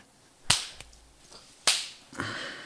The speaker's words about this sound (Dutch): Misschien moeten we dit... Eh, moeten we ook nog even klappen